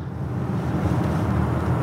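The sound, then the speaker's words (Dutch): A four-wheel-drive compact SUV weighing almost 2200 kg: its engine and road noise hold a steady, loud low rumble as it accelerates, with no voices over it. “We gaan weer even op het gas.”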